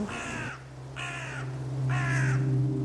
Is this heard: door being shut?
no